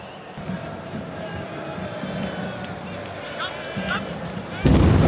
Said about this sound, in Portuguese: que é justamente da transmissão do Sport TV que pega o momento que explodem duas das três bombas que ocorreram ali aos arredores.